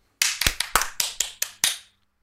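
A brief round of applause: about eight sharp, evenly spaced hand claps ring out and stop after under two seconds, with no voices.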